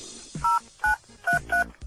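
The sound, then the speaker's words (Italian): Four short phone keypad tones from pressing keys beep in an uneven sequence, each a steady dual-pitched electronic chirp lasting a fraction of a second, with brief pauses and key clicks between them. No one speaks. “Digitare il tasto jolly, lo stella, vieni.”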